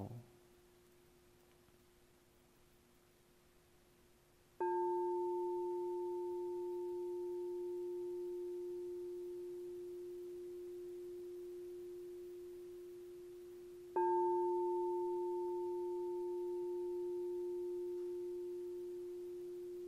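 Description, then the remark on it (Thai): A meditation bell is struck twice, about nine seconds apart. Each strike blooms into a loud, pure ringing tone that fades slowly, following a soft steady hum at the start. “หากเสียงนี้เสียงระฆังที่ดังขึ้น ต้องสัมผัสไปณจุดที่เรียกว่าประตูก็แปลว่าจิตเรานั้นตั้งอยู่ในฐานจิตที่อยู่กับรหัสที่เรียกว่าประตูอย่างถูกต้อง”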